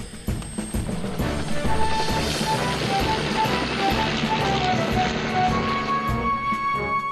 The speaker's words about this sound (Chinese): 听起来像汤姆的直升机，不知道有什么紧急事件。